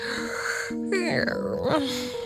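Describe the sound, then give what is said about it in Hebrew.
A drawn-out, exaggerated yawn voiced by a narrator acting out Kramer the sleepy cat in Meir Shalev's children's story, rising and falling in a long groaning sweep lasting about two seconds, clear with no words spoken. “כשהוא סוף סוף מתעורר, הוא מפהק ואומר...”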